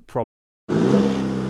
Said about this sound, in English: Hear that? That's the sound of the 2023 Chevy Silverado's 2.7 liter high output turbo engine, delivering 430 pounds per foot of torque with no compromise durability.